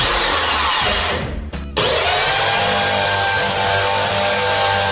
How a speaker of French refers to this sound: C'est un difficile ça. Il est un peu similaire à celui qu'on a eu la foreuse. Euh, allez, je vais le prendre. En fait, c'est une perceuse, mais foreuse, ça va tout aussi bien.